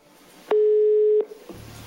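A single loud, steady telephone ringback beep of an outgoing, police-wiretapped call made after a house search, lasting under a second over faint background noise, followed by a low rumble.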